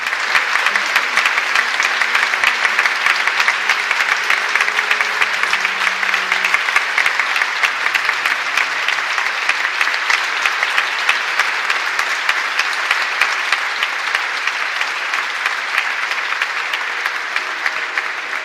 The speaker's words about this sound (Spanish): el aplauso de los presentes es la acogida a su nuevo obispo en su sede de Ávila.